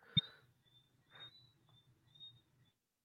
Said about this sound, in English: I can hear his fan though, or the birds. I mean, birds.